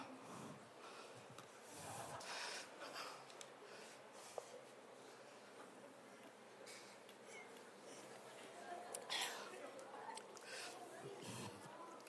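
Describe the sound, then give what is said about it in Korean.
Many people breathe hard while covering their nose and mouth with their hands, as a preacher instructs, producing muffled snorts and huffs in irregular bursts, with faint voices murmuring underneath. “자 손으로 가려봐 숨 쉬어봐.”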